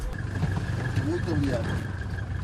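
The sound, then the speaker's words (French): The engine of a white and blue taxi drones steadily with a low road rumble as it drives along a road in Guinea-Bissau, a continuous hum throughout, with faint muffled voices briefly rising over the noise. “Le chauffeur de taxi poursuit sa route.”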